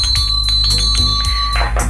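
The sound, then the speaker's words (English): A hand bell rings rapidly and insistently, its clapper striking in quick repeated clangs with a sustained metallic ring, loud over steady bass-heavy music playing underneath. “I'm just, no, every time it comes on, I'm going to ring the bell.”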